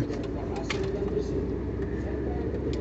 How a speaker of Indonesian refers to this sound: Dan kalau berisik mohon maaf karena kita lagi di mobil ini Dan kalau ada celatukan-celatukan kan... Kayak awas-awas gitu Karena kita lagi di mobil